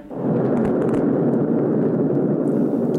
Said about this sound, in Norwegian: Du kan jo bare kjøre klippet nå. Der har vi faktisk oppskytingen.